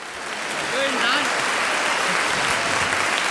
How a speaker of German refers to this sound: Schönen Dank. Schönen Dank, dass Sie mit uns, uns so viel, mit so viel Applaus empfangen.